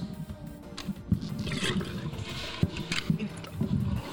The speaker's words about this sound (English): Uh, I'm gonna flush the toilet. Hold on.